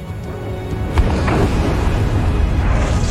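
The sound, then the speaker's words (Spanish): A deep, sustained roar as the crater of Volcán de Fuego breaks open in a massive eruption, with a sharp boom near the start followed by continuous low rumbling and crackling, loud with no voices; rocks are hurled out at over 100 metres per second, with the force of 10 tonnes of high explosives. “Esta explosión tiene la misma fuerza que la detonación de 10 toneladas de explosivos de alta potencia.”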